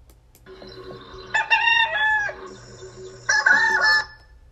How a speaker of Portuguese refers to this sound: Esse é o galo.